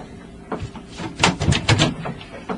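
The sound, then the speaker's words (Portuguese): A door opens and shuts as someone enters a general's office, with a few sharp knocks and a scraping clatter clustered in the middle, followed by a softer bump, against a quiet background. “Sim, entre e feche a porta.”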